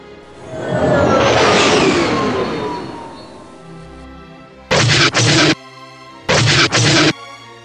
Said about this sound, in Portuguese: Eles atiram por tudo. Tu gira a nave e consegue escapar dos tiros.